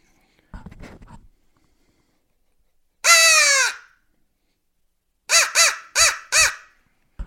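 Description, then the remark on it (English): A crow call is blown loudly once to make a turkey gobble, then after a pause gives a quick run of four harsh caws. A brief faint rustle comes before the first call. “instead of just ten right. straight seconds of crow calling, and he gobbled at you, and you don't know it”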